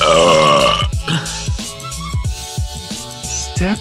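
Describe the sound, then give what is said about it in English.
A loud, drawn-out burp rumbles and wavers for about a second, then gives way to a steady thumping rhythmic beat. “Are we, are we doing burps now?”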